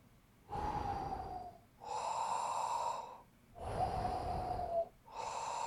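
Soft snoring of a sleeping, unhatched frog egg, heard when the mother frog holds it to her ear: slow, steady rhythm of four long breaths alternating between a breathy rasp and a buzzing, tonal snore, with brief pauses between them and no talking.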